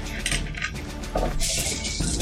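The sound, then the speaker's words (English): A handful of dice rattles and clatters against a hard surface, a dense run of small clicking impacts, fairly loud, with no voices. “I'm not going I'm need those, those d6s or those d4s that I borrowed from you.”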